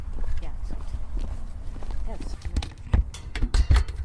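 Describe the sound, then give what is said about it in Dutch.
Footsteps crunch and tap along a narrow path toward a farm in the pitch dark at night, uneven, growing sharper toward the end, with faint murmured voices in the background. “We lopen over het smalle pad richting de boerderij, waar ik mijn fiets tegen het hek zet.”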